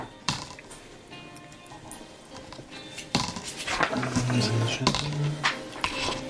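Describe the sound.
Several sharp clattering clicks scattered over a few seconds, like dice tumbling onto a table, as players roll dice for a perception (Sinnesschärfe) check, with faint murmuring voices and background noise in the room.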